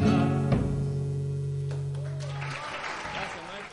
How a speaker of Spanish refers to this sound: Bien, con este aplauso lo vamos a, eh, a recibir.